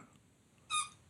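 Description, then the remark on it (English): A squeaky dog toy belonging to Molly, a dog, lets out one short, high-pitched squeak, sudden and fairly loud, with no one speaking. “Molly has a dog toy.”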